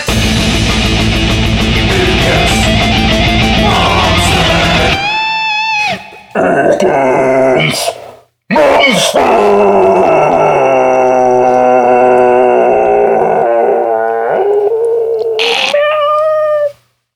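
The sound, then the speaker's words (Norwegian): A dog lets out a loud, drawn-out roar that rises into wavering, howling tones, broken by a couple of brief pauses, unaccompanied by any talking. “ja, det var brølet sitt, det.”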